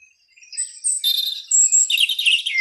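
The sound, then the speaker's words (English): High, bright birdsong: a rapid flurry of chirps and trills that builds into dense, overlapping twittering, fairly loud, with no voices present. “Listen to the high frequency of birds”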